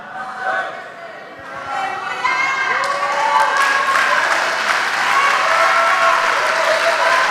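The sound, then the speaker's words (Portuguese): A crowd bursts into sustained, passionate applause for a woman who spoke of the love of Jesus Christ before the leading figures of Brazil: dense clapping that swells louder after a few seconds, mixed with cheering and shouting voices rising and falling above it. “E inexplicavelmente ela foi apaixonada aplaudida.”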